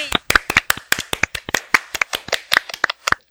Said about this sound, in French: Oui! Wouhou! On s'applaudit tout le monde! Yay!